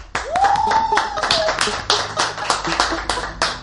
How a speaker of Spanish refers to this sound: Por favor, aplauso.